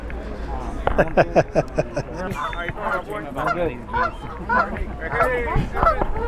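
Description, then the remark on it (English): A flock of geese honks repeatedly and loudly, their harsh calls overlapping in an irregular, clamoring rhythm with steady background noise throughout. “I hear the geese. The geese are singing a song for you, wedding song for you.”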